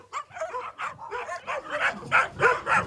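Several dogs bark at an animal shelter in the small town of Sitia in quick, overlapping bursts, a steady stream of yaps and woofs that grows louder and more insistent toward the end, with no one speaking.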